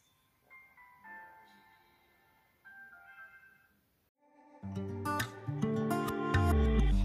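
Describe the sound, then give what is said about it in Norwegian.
A short, soft chiming vignette jingle for Tel Aviv 2019 plays a few bright melodic notes, pauses briefly, then gives way to a loud, full burst of music with heavy bass. “Ja, den der lille, den lille vignetten til, vignetten, ja. til Tel Aviv 2019.”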